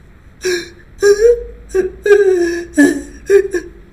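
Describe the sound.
A voice imitates sobbing to illustrate the French verb "sangloter", with about six short, breathy, wavering cries in an uneven rhythm, each catching and breaking off, fairly loud with no other sound.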